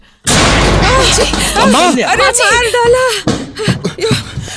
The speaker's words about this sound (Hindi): और तभी अचानक अलमारी के ऊपर से ट्रंक गिरा सीधे माजी के ऊपर